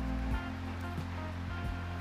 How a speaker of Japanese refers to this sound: 雨音がかなり入ってるかと思います